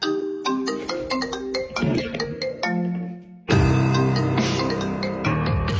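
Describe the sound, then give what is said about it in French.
A melodic telephone ringtone plays a bright, stepping tune of short tones; halfway through, it turns suddenly louder and fuller as richer piano notes join in, played along with the ringtone. No one speaks. “Eh ben parce que dès que ça sonne, il se jette sur son piano pour jouer sur la sonnerie.”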